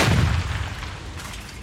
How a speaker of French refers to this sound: une terrible explosion vient d'avoir lieu. Une explosion qui provient de l'usine Nobel. L'usine vient de se faire totalement raser par l'explosion.